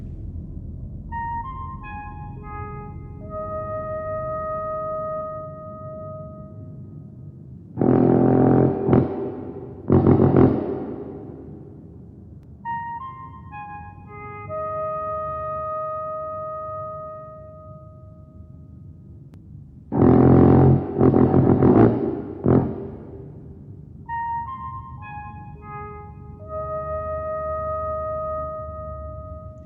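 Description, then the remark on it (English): The giant alien mothership's musical tones at the end of the film Close Encounters: a sequence of pure, sustained tones steps through a short melodic phrase, interrupted twice by deep, roaring blasts of booming brassy sound. The tone phrase then repeats, with no voices. “Play the pop tones.”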